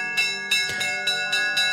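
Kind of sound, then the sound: signal or alarm, school bell ringing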